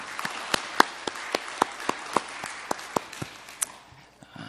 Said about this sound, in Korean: 맨 새날이 밝았습니다. 우리 하나님께 감사의 박수를 올려드리겠습니다.